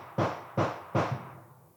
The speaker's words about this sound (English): hope y'all can hear some of those fireworks firing off in the background. I thought it was going to be okay. I figured none of y'all would be that upset because we're literally celebrating Independence Day.